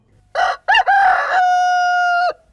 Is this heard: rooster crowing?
yes